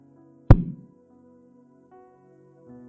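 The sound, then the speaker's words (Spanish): A single sharp hammer blow on a nail, loud, its ringing thud fading quickly into a quiet, faintly humming background. “es como el martillo que va a ponerle sus clavos en sus manos cada que escuche, que escuche el sonido de un clavo, sabe que es el clavo que pasará a sus pies.”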